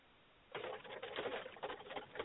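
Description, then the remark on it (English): Someone rummaging through a junk drawer: a steady, irregular clatter of small objects knocking and scraping together for about two seconds, fairly loud, with no voices. “Sounds like someone's rooting through a junk drawer.”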